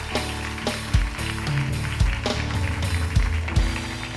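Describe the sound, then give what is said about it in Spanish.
An audience applauds after a prayer, answering a call for a big round of applause, in a steady, crackling wash of clapping, with sharper accents recurring about every half second over low, sustained musical tones. “porque qué no damos un fuerte aplauso ahí donde estás?”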